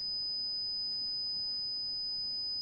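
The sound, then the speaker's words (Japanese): A steady, high-pitched pure tone, played as an example of a high-pitched sound while explaining pitch, holds unbroken for nearly three seconds, sounding alone over a faint low background hiss, with no talking. “えっと、例えば、えっと、低い音であれば、というような感じで、高い音であれば、”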